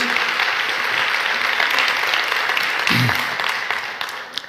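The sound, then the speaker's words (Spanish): An audience at a church sermon applauds for Jesus, a dense wash of many hands clapping that holds at a loud, even level before gradually thinning out toward the end, with a brief voice or shout near the middle. “Vamos, denle un fuerte aplauso a Jesús.”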